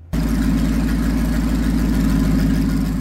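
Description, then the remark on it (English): A 1949 Custom H tractor, the prototype of its series, idles steadily in Missouri, a loud, low, rhythmic chugging with even pulses that holds constant throughout, with no voices over it. “This is my 1949 Custom. This is the prototype of this series of tractors.”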